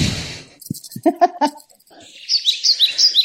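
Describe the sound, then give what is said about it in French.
Brief muffled sounds give way to a bright run of about six quick bird chirps in a steady rhythm, clear against a faint background. “Voilà les oiseaux.”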